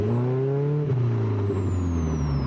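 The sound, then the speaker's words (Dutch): The four-cylinder, 154 hp Ford engine of a classic Plus 4 sports car with an Aero Racing sport exhaust drones loudly and steadily, its deep harmonic tone rising slightly, then dipping and shifting in pitch as the revs change. No one speaks. “Ja, het motorgeluid, die krijgt wel een hele mooie nadruk hier.”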